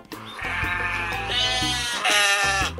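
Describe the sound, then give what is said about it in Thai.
A sheep bleats loudly, one long quavering call that rises in pitch partway through and holds for nearly three seconds, with no talking. “วันนี้เป็นเรื่องของแกะค่ะ”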